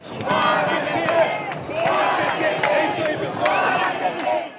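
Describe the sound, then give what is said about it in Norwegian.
A large crowd of demonstrators on Copacabana in Rio de Janeiro, Brazil, chants loudly in unison "Out with the Workers' Party", voices rising and falling in repeated rhythmic phrases, with shouts layered over a dense, continuous roar. “Ut med Arbeiderpartiet, roper demonstrantene på Copacabana”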